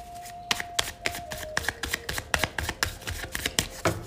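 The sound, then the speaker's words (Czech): Tarot cards being shuffled during a tarot reading: a quick series of crisp, papery riffles and slaps in an uneven rhythm, with a faint steady hum in the background and no talking. “Já už se dívám na vaši fotku, míchám u toho karty a my se spolu podíváme, co nám Tarot poví o vás dvou.”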